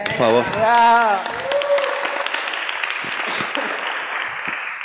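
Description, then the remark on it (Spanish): A man speaks briefly over a loud crowd, asking for applause for the members of his band, then an audience bursts into dense, sustained applause that carries steadily to the end, with a voice still calling out over it. “Que pido un aplauso para estos carnales”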